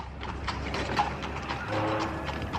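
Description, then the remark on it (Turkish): Hooves of a horse-drawn carriage clip-clop at a steady pace as it drives away, with wheels rumbling underneath, moderately loud, with no talking. “Kız bir başına arabaya binip gitti.”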